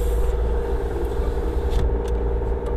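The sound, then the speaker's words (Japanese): Steady low rumble of a car interior on the move in Hokkaido on a sunny day, with constant engine and road drone filling the cabin, a few light rattles and scrapes, and no voices; the car's thermometer shows 13 degrees outside. “今日の北海道はねなかなかいいお天気ですよすっごくね晴れていまして眩しいぐらいです、えー、車の中についているね、えー、温度計だと外の気温はね13度となっています”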